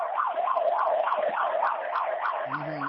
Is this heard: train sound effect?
no